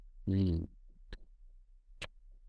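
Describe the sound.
A hammer knocks twice in a video game, about a second apart, each a sharp, clipped strike. A brief voiced sound, like someone humming or calling out, comes just before the first hit.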